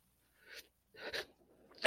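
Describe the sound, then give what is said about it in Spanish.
A person sneezes: two short breathy intakes build up, then a sharp, loud sneeze bursts out at the end. “Salud.”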